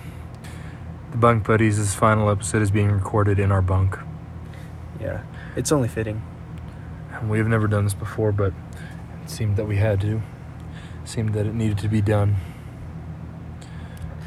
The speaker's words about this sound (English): The first episode recorded in our room on our bunk. You can probably hear the fan in the background.